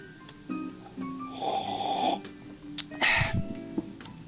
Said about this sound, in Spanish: pero antes de continuar voy a dar un sorbito de café y para que, para que se vea que, para que se escuche, para que vean que sí lo hago, para que vean, para que sepan que sí lo hago.